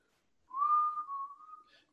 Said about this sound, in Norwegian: Lager en litt sånn plystretema, sant. Og så mm. lager jeg sånne greier.